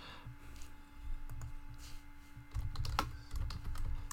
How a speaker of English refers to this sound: I'm sorry if you hear my cl- my keys clacking. I'm really sorry about that if you heard that. Anyway, sorry, I needed to to to, send that quick little message.